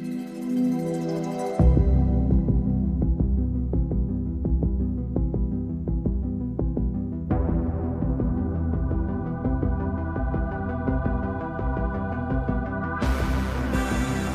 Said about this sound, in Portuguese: Vamos ouvir um trechinho de uma abertura que